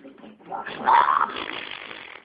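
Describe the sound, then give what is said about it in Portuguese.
A voice imitates a fart with a raspy, sputtering blurt that swells to a louder buzzy middle and trails off over about two seconds. “Não era pra peidar, né, não já. É, porra, já peidei, porra.”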